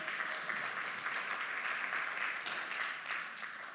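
A crowd claps steadily for several seconds for a volunteer coming up to join the speaker, a dense, even patter of many hands at a fairly loud level, with no voices standing out.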